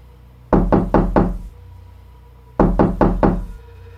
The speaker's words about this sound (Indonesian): Hingga akhirnya ada suara ketukan pintu dari arah pintu depan rumahnya.